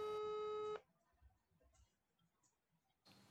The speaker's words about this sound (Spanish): Tenía que llamarla. La llamé y ella contestó después de cuatro tonos.